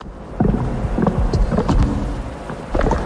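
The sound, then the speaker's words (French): A newly installed biogas methanizer on a farm, converting the farm's organic waste into biogas, runs with a steady low rumble, irregular gurgling, sloshing knocks and bubbling surges, with no voices. “Et si le son que vous entendez était celui de l'avenir C'est le son du méthaniseur”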